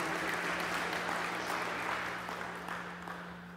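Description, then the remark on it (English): A crowd claps steadily for a few seconds, a dense patter of many hands that tapers off slightly toward the end, with a low steady hum underneath and no one talking. “Yeah, you guys can say yes or clap or anything.”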